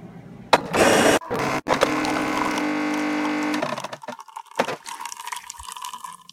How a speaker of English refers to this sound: Noise you heard at the beginning, that's my coffee maker, Rhonda.